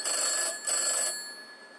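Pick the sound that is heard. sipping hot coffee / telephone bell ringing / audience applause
telephone bell ringing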